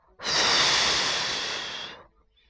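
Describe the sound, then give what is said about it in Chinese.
A voice imitates the big grey wolf of the Three Little Pigs story blowing hard at a little pig's house: one long, forceful breathy exhale lasting nearly two seconds, loud and airy with a hissing edge, fading slightly before it stops. “大灰狼就吹呀吹呀，”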